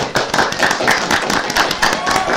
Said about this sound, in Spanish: Y nos queremos despedir, pero sin antes darle un nuevo aplauso a nuestra invitada.